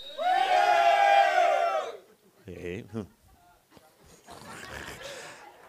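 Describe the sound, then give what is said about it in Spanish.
A group of men in an audience roars together loudly on a count of three for about two seconds, a dense, sustained collective shout, followed by a speaking voice and scattered crowd murmur. “Los hombres a la cuenta, que se oye ese león que está dentro de ustedes.”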